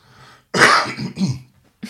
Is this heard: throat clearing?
yes